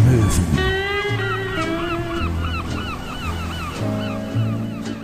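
Seagulls call over and over in loud, overlapping squawks, set against a steady rushing wash of ocean waves. No one speaks.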